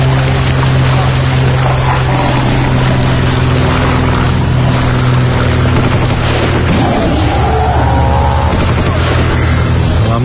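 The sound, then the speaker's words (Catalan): The Sitges film festival intro jingle, showing King Kong trying to destroy aircraft against the Sitges skyline: a loud, steady propeller-engine drone layered with rattling bursts of gunfire and heavy booms. No one speaks. “música de, de la careta de Sitges amb en King Kong aquí intentant destrossar avions amb, amb el perfil de Sitges de fons”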